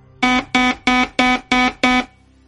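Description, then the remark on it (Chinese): An alarm goes off in six loud, evenly spaced buzzing beeps, each short and harsh with a rich, nasal tone, repeating at a steady quick pulse with no voices. “牛牛开始掉头，可谁知当他们渐渐靠近地球时，突然响起了警报。”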